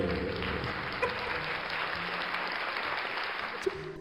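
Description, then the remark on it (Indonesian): Sustained applause from many hands clapping at once, a dense, steady wash of claps that stays fairly loud throughout with no voices standing out. “nang alam kubur ono sing tepuk tangan cuk sangar cuk sangar cuk sangar”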